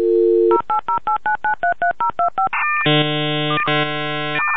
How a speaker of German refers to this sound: Das Dosentelefon hat geklingelt